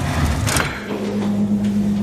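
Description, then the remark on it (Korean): A residential building's elevator door slides open on the fifth floor after the call button is pressed, with a short mechanical rush, then a steady low motor hum carries on at moderate volume, with no voices. “다시 엘리베이터 버튼을 누르고 문이 열린 뒤 올라탔고”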